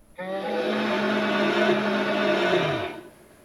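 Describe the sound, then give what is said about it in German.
A fire-breathing dragon sound effect from an interactive living book exhibit at the city museum in Ingolstadt, Germany: one loud, sustained growling roar with a rough, buzzing hiss, holding steady for nearly three seconds before its pitch sinks and it cuts off. “So klingt er, der feuerspeiende Drache beim lebendigen Buch im Stadtmuseum Ingolstadt.”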